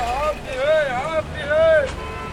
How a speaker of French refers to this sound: C'est inhabituel aussi car quand on arrive près du lieu où se déroulent les répétitions, on entend d'abord les sons quotidiens de la ville. Les motos qui klaxonnent, les rabatteurs de passagers dans les minibus qui crient leur destination